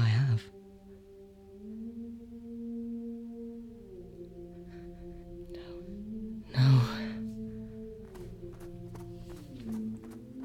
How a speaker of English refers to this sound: The cold air stings my lungs as I run through the snow, panting, and I can hear the creature moving behind me.